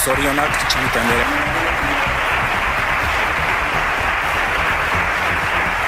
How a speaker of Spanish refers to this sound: Y entre aplausos en el Parlamento Foral, así ha sido investida María Chivite como presidenta de Navarra